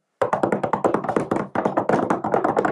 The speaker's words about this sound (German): Gib mir Klopfen.